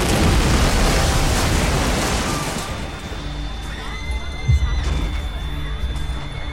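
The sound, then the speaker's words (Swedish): A loud explosion from the terror attack at Manchester Arena, at half past ten, roars with dense, crackling noise, then fades over a few seconds into a low rumble while a thin, high-pitched ringing tone lingers, like ears ringing after the blast. “Plötsligt hörs en stor smäll”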